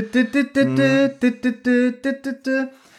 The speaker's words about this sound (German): Und man hört im Hintergrund so, so eine Eiswagenmusik.